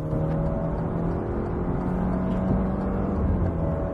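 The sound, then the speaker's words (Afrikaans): A car with a 2-litre turbo engine (147 kW, 330 Nm, rear-wheel drive, 8-speed automatic) drones steadily and fairly loud from start to finish, a constant low hum with a faint whine on top, with no voices. “Die 2 liter turbo lewer 147 kW en 330 Nm aan die agterwiele via 'n 8-spoed outomatiese ratkas.”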